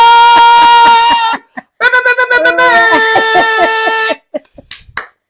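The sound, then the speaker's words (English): A soft, steady low clap repeats at an even pace beneath loud sustained tonal sounds, like held sung or played notes, with a short pause midway and a few scattered claps at the end. “Ooh, ooh, I'm a low clap tonight.”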